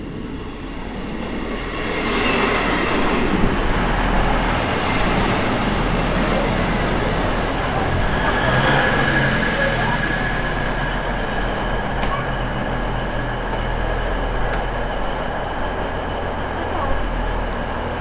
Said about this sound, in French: Le train, ça fait du bruit ici, hein Ouais, ouais. un des derniers trains diesel, peut-être le dernier. C'est vrai que c'est une ligne un petit peu rustique.